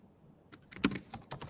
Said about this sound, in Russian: а то механическая клавиатура бьет по голове. Это же маковская клава. Ну, маковская клава.